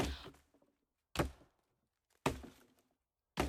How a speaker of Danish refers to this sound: Anton finder øksen frem. Skovens stillhed bliver brudt af Antons økseslag.